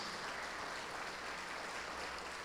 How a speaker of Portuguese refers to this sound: Vamos aplaudir ao nosso Senhor Jesus.